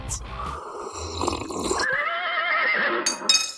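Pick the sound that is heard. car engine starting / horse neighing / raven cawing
horse neighing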